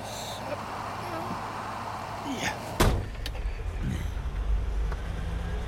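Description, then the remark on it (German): A car door clicks open and then shuts with a single solid thump as someone gets into a car, followed by a low steady rumble as if inside or beside the vehicle. “Steig ein, ich nehme dich mit zurück nach Marmes.”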